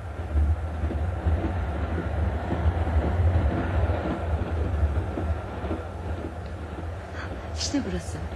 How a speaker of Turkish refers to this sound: Böylelikle Bayan Gray de ayın 14'ünde Nice gidecek olan mavi trene biner ve orada Bayan Catherine ile tanışır.